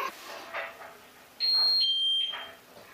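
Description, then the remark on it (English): A washing machine's end-of-program signal: a steady high electronic beep, then a second slightly lower tone, loud and clean over faint background clatter and rustling. “The program is through, the laundry is ready.”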